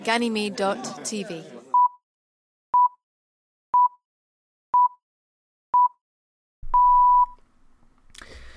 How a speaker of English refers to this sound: So if you would like to play along with us, uh, you can press play on your copy of the episode after these beeps. Pips.